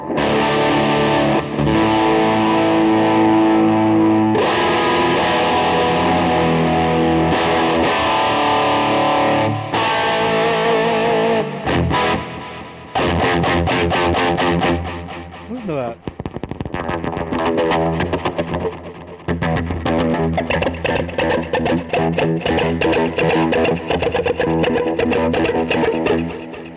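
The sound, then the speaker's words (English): A Kramer electric guitar plays heavily distorted chords and riffs, loud and continuous with brief dips, thick with effects; a voice briefly speaks over it partway through. “You love that Kramer? That's my fir- that Kramer. That's my first real guitar.”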